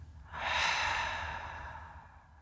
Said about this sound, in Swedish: Andas ut.